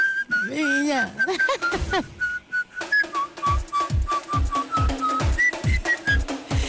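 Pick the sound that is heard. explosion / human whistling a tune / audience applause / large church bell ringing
human whistling a tune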